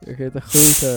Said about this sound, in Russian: Он открыл пиво? Да. Он открыл виски и он открыл колу.